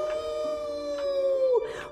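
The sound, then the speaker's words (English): A single long, mournful howl, imitated by a human voice, holds a steady pitch for well over a second before sliding downward and trailing off, fairly loud. “But whenever he felt lonely, he would go back to the valley and he would howl.”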